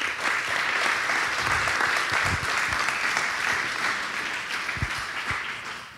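An audience claps steadily for several seconds, a dense, even wash of many hands with no voices standing out, holding a constant loudness before easing slightly at the end.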